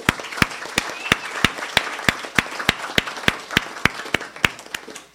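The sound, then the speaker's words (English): An audience applauding the cooks who made the soup, a steady wash of clapping with a few hands striking loud, regular claps above the crowd throughout. “So let us uh, give all of our wonderful cooks a round of applause, please.”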